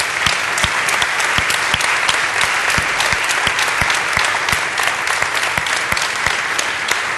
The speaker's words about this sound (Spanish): Aquí hay muchos mentores y coaches de mentores que están aquí sentados. Yo quiero que les des un fuerte aplauso, por favor.